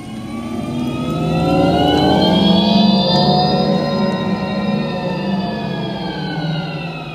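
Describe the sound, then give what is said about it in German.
A loud, spacey synthesized driving sound from a Skoda Enyaq electric SUV: layered harmonic tones swell and glide upward, then slowly ease off, sustained for several seconds with no talking. “Ja, krass laut für ein elektrisches ja. Auto. Und spacig auf jeden Fall.”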